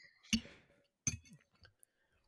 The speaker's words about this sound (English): they can just hear your plate clanging, bruv, as if you're playing drums